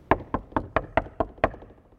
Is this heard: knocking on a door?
yes